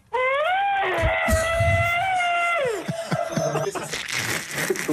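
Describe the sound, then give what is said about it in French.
A person vocally imitates an elephant's trumpet: one loud, sustained, brassy call of about two and a half seconds that slides upward, then breaks into rougher, noisier blasts at the end. “Le bruit du barissement de l'éléphant.”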